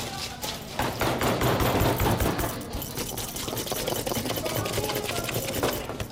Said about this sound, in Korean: 기계에 돌아가는 소리, 5분 타이머 소리. 서울 중랑구에 있는 송곡 관광고등학교 조리실에 학생들 실습이 한창입니다.